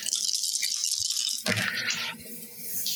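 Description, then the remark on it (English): Dice rattle and clatter across a hard surface, rolled for an opportunity attack in a game, a steady bright rattling with a sharper burst of clicks midway before it settles on a natural three. No one speaks. “That's a natural three on the dice.”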